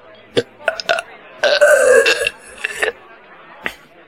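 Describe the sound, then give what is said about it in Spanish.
A loud, drawn-out burp rumbles for about a second, framed by a few short clicks and smacking mouth sounds before and after. “Dijo …, eructando.”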